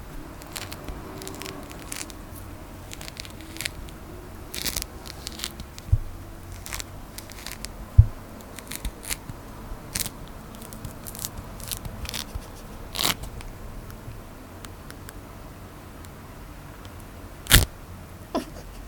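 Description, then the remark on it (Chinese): An orange being peeled: soft, irregular crackles and small tearing snaps spread over the whole stretch, with a few sharper pops standing out against a quiet background. No one speaks. “你剥橘子，剥橘，剥橘子， 哇，看好爽。”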